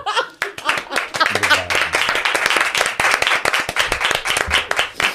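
A crowd applauds steadily for several seconds, many hands clapping in a dense, loud patter, with a few voices briefly audible underneath.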